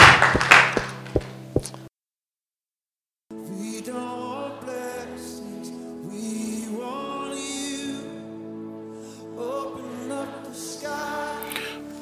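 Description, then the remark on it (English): An audience claps together for Jesus at the close of a prayer, in a short, dense burst of applause lasting under two seconds, with a few sharper claps standing out. It stops abruptly, a brief silence follows, then sustained music begins. “Clap your hands together for Jesus and you may be seated.”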